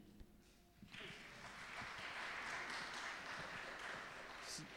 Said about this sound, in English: not often you get a clap for asking people for money.